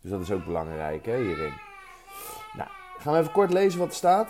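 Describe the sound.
A young child cries and babbles in the background, a thin, wavering whine that rises between and beneath an adult's steady nearby talking.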